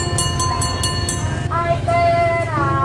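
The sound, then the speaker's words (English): A train rolls past on the railroad in Hanoi, Vietnam: a steady, heavy rumble with rhythmic metallic clacks early on, then sustained high whining tones from wheels or brakes rising over the din. “Apparently, the, the, the railroad.”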